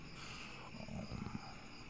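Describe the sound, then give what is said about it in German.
A low, rumbling lion roar swells briefly for about a second before fading, fairly faint, with no voices present. “Du, Zoolöwe, streunende Katze. Könntest du dir vorstellen, mit mir zu tauschen?”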